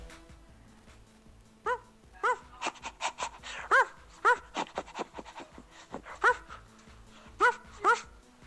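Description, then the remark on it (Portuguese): A big dog barks in short, scattered bursts, about seven in all, with rapid, breathy panting filling the gaps between them, fairly clear, with no one talking, played from a WhatsApp audio message. “O cachorrão, o cara Cachorrão passou por aqui, gente.”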